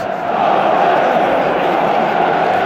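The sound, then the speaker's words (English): A big stadium crowd of Chelsea football fans roars and cheers after their team scores from a corner at St James's, swelling up within the first moment and then holding a dense, steady wall of voices with no single voice standing out. “they're finally making the kind of noise they should have been doing all game.”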